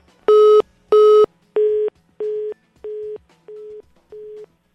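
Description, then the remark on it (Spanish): A phone busy tone after a dropped call: seven evenly spaced electronic beeps in a steady on-off rhythm, starting loud and gradually growing fainter, with no voices. “Ay, caray, se nos fue la llamada.”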